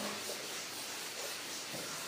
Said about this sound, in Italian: Ascoltando bene il respiro, chi non lo conosce è sufficiente che ascolti gli altri. Respirazione purificatrice potente. Usa bene il diaframma.